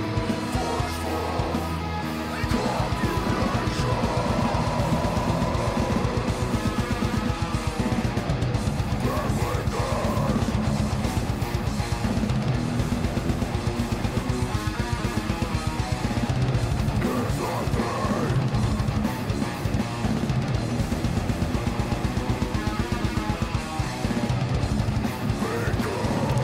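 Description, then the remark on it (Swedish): A dense, loud progressive rock track with busy, intricate, technical electric guitar chord work over driving drums and bass, playing continuously after a brief quieter opening. “Det hörs att de har teknik så det skriker om det, gitarristerna. Proggackord.”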